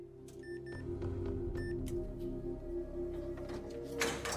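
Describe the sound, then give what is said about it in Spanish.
A heavy bank vault door opens with a steady mechanical whir and grinding hum, preceded by two short electronic keypad beeps and ending in a loud metallic clunk, with no voices. “Y la puerta se abrió.”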